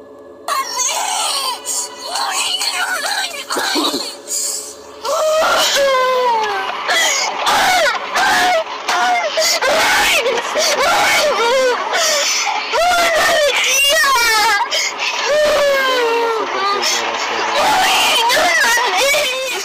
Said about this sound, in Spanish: quiero que mostremos un video de la oh, una rabieta de un adolescente porque le quitaron el, celular. Oh, un niño de 12 años.